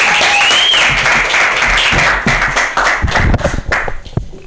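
A crowd claps in a loud, dense burst of applause with a brief high whistle near the start, then the clapping thins out into scattered individual claps toward the end.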